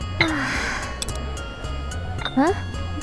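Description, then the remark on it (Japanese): A few brief, light clinks of dishes as food is served onto small plates, sitting between short vocal sounds from a person. “早速小皿に取り分けてくれるなんてどんだけ女子力発揮してるんですか”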